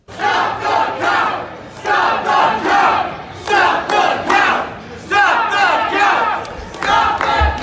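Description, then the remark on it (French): A large protest crowd in Detroit chants a short slogan in unison demanding to stop the vote count, repeating it in loud rhythmic bursts roughly every one and a half seconds, with shouting voices filling the space between chants. “Je vous fais entendre d'ailleurs ce que les gens criaient là-bas il y a quelques minutes.”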